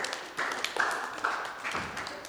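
Brief, light applause from a small audience: a patter of irregular hand claps blending into a soft wash, with a few sharper claps standing out, and no voices.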